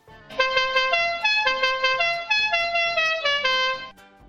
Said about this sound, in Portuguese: Imagina o Han Solo buzinando a Millennium Falcon. Imagina, qual que será que seria a buzina bizarra dela, né? Esse tipo... La cucaracha, né? a, buzina, a buzina do Hanson seria mais ou menos assim.